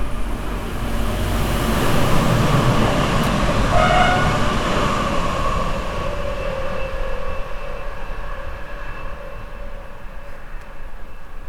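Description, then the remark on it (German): A regional express train rumbles past on the rails, a loud, continuous roar with metallic screeching tones that swells early and then gradually fades as it moves away. No one speaks. “Ähm, ah, ne, kommt Regionalexpress erst, okay.”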